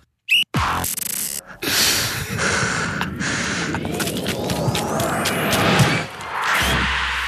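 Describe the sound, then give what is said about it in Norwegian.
The penalty kick jingle from Heia Fotball: a couple of sharp hits, then a loud, dense rushing swell with rising whistle-like tones sweeping upward before it cuts off abruptly. “Akkurat som den jingelen, så suser straffen i høyre side ved stolperota.”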